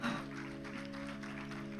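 A church audience claps steadily for a church member, a dense, even patter of many hands that holds at a constant level throughout, with a sustained low musical tone humming underneath.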